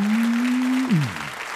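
A crowd claps and cheers in a steady, dense wash of applause, while a low sustained hum holds and then slides downward in pitch just before the clapping thins out.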